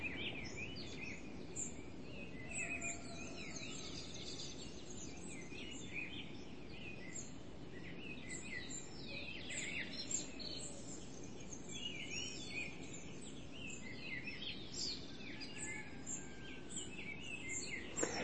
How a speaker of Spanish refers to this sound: Ese concierto hermoso que las aves preciosas y humildes le hacen al Señor al amanecer.